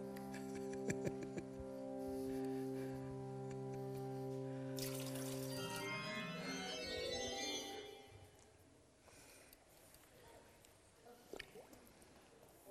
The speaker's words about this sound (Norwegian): Hvor mange vann skal vi da fylle oppi her? Det er fire, sant? Vær så god, da kan du få komme og fylle på det, så det blir a jour her.